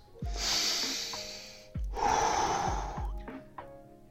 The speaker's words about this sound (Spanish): Entonces vamos a ir con calma, vamos a ir respirando, vamos a llevar la fiesta en paz. Como recomendación, em, unas tres respiraciones bien hechas